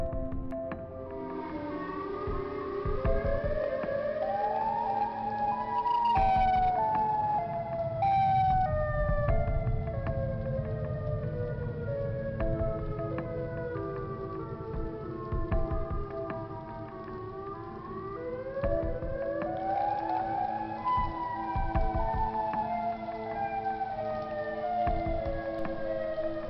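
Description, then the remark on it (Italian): A tornado warning siren wails continuously near Willow Springs Woods in a recording from 10 June 2010, its pitch rising and falling in long sweeping cycles with layered harmonic tones, loud and echoing, with no voices present. “Era il 10 giugno e alcuni testimoni chiamarono la polizia quando iniziarono a sentire una sirena antitornado squillare dalle parti di Willow Springs Woods.”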